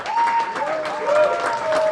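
A large audience applauds steadily for the winners of the Sci-Fi World cosplay contest in Helsingborg, 2019, as all the cosplayers come onto the stage; a dense, continuous wash of clapping that holds at full strength throughout, with a faint sustained tone drifting underneath.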